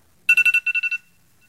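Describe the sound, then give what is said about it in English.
An electronic alarm ringtone sounds alone: a quick, bright run of eight beeps in two groups of four, clear and fairly loud, then cutting off into silence. “That's the alarm.”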